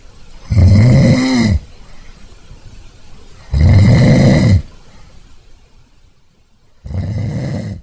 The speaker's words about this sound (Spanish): Se voltea para un lado y empieza, se voltea para el otro y le sigue. Y, bueno, ¿qué te parece si escuchamos una pequeña muestra de los ronquidos